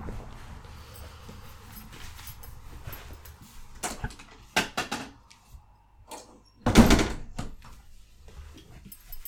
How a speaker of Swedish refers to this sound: Jag ska öppna min dörr.